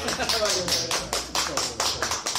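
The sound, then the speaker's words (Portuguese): Steady hand clapping for a storyteller's narration, roughly four sharp claps per second, fairly loud, with a faint murmur of voices underneath. “Palmas pro,”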